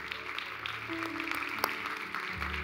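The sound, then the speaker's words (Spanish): A church audience claps steadily for a few seconds for the people following online, a dense patter of many hands over a low sustained hum, with no voices standing out. “Iglesia, le damos un fuerte aplauso a la gente que nos acompaña por internet.”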